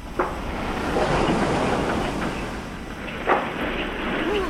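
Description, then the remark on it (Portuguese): A fishing boat rocks on the water with a steady low wash, wooden creaks rising and falling, and a couple of sharp knocks against the hull, moderately loud with no voices. “Para de balançar o barco”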